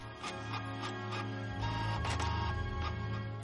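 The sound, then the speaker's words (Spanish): A printer runs steadily, printing the pages of a novel, its low mechanical hum overlaid with regular clicking and brief whirring sweeps as pages feed through, with no voices. “Una tras otra van saliendo las páginas de la impresora.”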